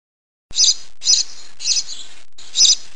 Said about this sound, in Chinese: 知更鸟高声唱，哔噗哔噗。